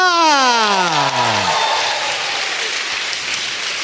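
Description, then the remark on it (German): Dense applause from a live audience voting by applause fills the whole stretch, loud and steady, with a high descending whistle-like wail sliding downward over the first second and a half. “Ganz großer Applaus für die berittene Schutzstaffel.”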